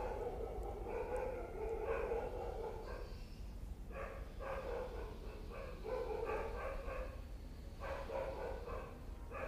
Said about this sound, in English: barking of the dogs and the chirping of the birds.